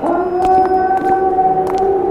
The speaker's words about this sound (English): From time to time, we could hear one of the mutated creatures crying out in the night.